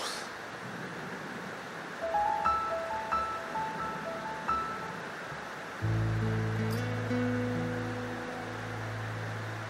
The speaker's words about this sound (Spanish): lloviendo más fuerte.